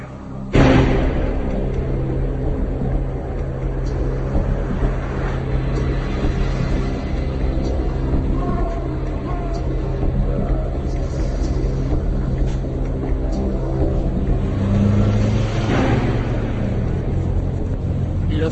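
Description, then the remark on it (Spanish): A car engine approaching a farmhouse rumbles steadily, a low droning hum with a sharp surge at the start and another rising rev near the end. “asesinos escuchan cómo se acerca un coche.”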